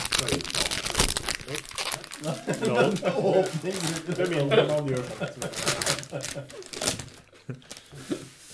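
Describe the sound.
Close, busy crinkling and rustling of a chocolate bar wrapper being opened, with sharp crackles throughout and a voice murmuring underneath in the middle.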